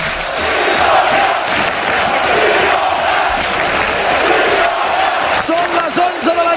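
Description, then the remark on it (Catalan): A large football stadium crowd at Montilivi in Girona roars continuously at night, dense cheering and chanting filling the space at steady loudness, with occasional louder shouts rising near the end, as Girona leads 1-0 in the last minutes of the match. “I Montilí sona així a aquesta hora de la nit.”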